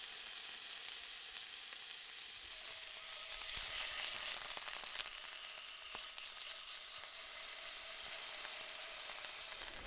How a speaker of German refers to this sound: brutzelt oft schon das Abendessen in der Pfanne.